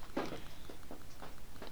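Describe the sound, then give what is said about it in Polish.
Faint, soft pattering and shuffling of a dog moving around in the background, a handful of light irregular taps and rustles spread across a quiet background with no talking. “Te dźwięki z tyłu to mój pies.”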